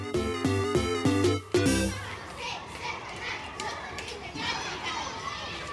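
A brief run of bright ringing tones opens, then a busy schoolyard takes over: many children chattering and shouting at once, a steady lively hubbub at moderate distance.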